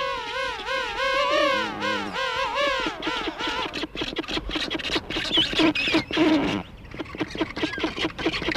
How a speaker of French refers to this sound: d'un seul coup, il y a un chœur de deux, trois, quatre manchots qui chantent en même temps, moi ça m'est arrivé de dire maintenant, vos euh, gueules aux manchots tellement j'en avais marre de les entendre.